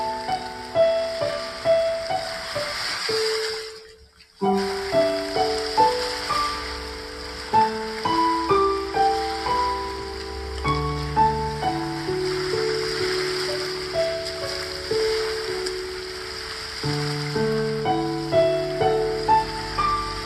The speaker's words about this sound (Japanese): はい。では、波音をね、あの、昨日ね、撮ってきた波音を、あの、聞いていただきながら演奏していきたいと思います。